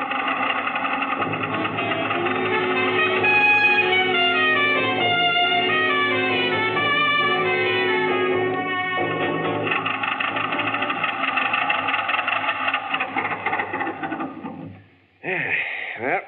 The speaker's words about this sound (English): That's the car.